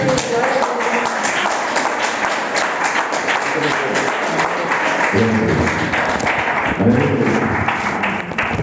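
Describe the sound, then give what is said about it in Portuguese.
An audience at an evening church service applauds the Lord steadily for several seconds, a dense, loud wash of many hands clapping, with a few voices calling out over it near the end. “Então, vai é essa oportunidade e você aplaude o Senhor nessa noite.”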